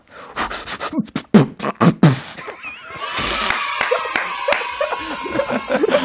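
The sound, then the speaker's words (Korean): Someone vocally mimics shaking and squeezing a nearly empty ketchup bottle, taken from the fridge for a fried egg, with a quick run of wet, sputtering pops from the mouth, followed by a burst of audience laughter and chatter. “이걸 잘 먹을 수 있을까 하고 딱 털어가지고 탁탁 털어서”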